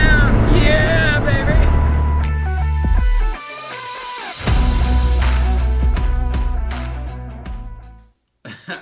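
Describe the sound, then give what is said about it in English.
A car engine roars loud under hard acceleration, its whine climbing in pitch, briefly easing off midway before surging again, then cutting out near the end. “My car's gonna feel slow as balls after this, I'll tell you that.”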